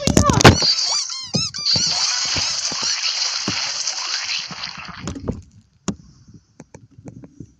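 Loud, continuous high-pitched squeaking with wavering tones runs for about five seconds, broken by sharp clicks and knocks, then stops, leaving only scattered faint taps.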